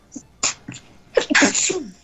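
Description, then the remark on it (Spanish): A person sneezes: a few short breathy bursts build up, then one loud, forceful sneeze with a hissy spray of noise that fades out. “Salud. Perdón, gracias.”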